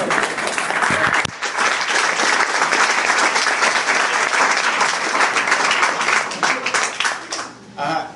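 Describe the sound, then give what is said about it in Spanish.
An audience breaks into sustained applause, dense and steady clapping that holds loud for several seconds before thinning out and tapering near the end. “Pero bueno, aplauda, pues, aplauda.”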